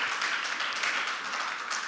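The Mission Church audience claps together in a dense, steady wash of applause, many hands overlapping into a continuous bright crackle with no individual claps standing out, holding at an even loudness throughout.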